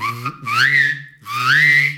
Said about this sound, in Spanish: ¡Ándale! Es como lo mismo. O sea, tienes que chiflar, pero haces como voy a practicar.